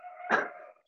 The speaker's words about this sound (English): Do you guys hear my dog? What was that? Was that your? Was that a dog? That was my dog.